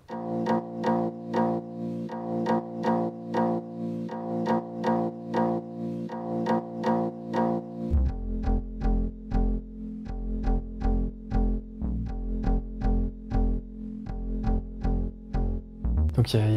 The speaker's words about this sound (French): une, harpe totalement désaccordée qui m'a permis de, créer ma ligne de basse euh, du morceau que j'ai un peu renforcé avec des synthés pour lui donner un truc un peu puissant. Mais c'est vraiment elle, c'est vraiment sa sonorité qu'on entend.